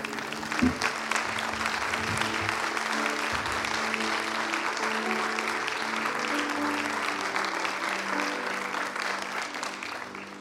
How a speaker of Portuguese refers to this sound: pode aplaudir o Senhor nesse momento?